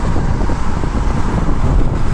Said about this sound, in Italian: non so se si sente qualcosa visto che sto andando a manetta con le finestre aperte adesso le, le, le chiudo perché ho anche l'aria condizionata